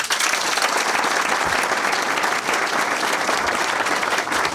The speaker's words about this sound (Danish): Ja, nu skal I give hende et større bifald, end I gav i selve programmet, vil jeg sige.